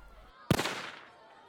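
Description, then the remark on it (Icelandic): A single loud rifle shot cracks out sharply, fired by a 16-year-old girl from a window of her home across the street from a school, its echoing tail fading away over about half a second, with no voices around it. “Hún let skotin dinja hvert á fætur öðru.”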